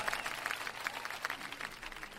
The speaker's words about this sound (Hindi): तालियों के साथ इनका स्वागत कीजिए मंच पर